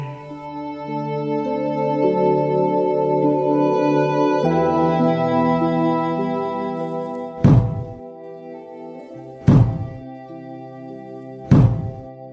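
A monk's wooden staff (jujangja), raised by the abbot on the dharma seat of the main hall (Daeungjeon) of Ssanggyesa temple on the closing day of the summer retreat, strikes the floor three times in a slow, evenly spaced series, each a loud, sharp thunk, following a sustained, droning tonal sound with no one speaking.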